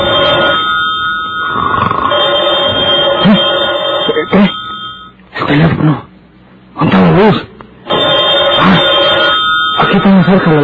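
A telephone rings loudly at night in sustained bursts, its bright electric bell trilling on and off with short pauses between rings, dominant throughout.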